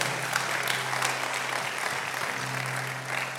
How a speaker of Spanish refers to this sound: Vamos, eso merece un, aplauso.